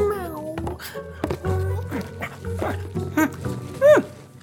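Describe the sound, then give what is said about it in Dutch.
A voice playfully imitates a dog barking while wearing a dog mask, producing a series of short, yelping woofs spaced irregularly, moderately loud, with a low background hum throughout. “Woef. Woef. Woef.”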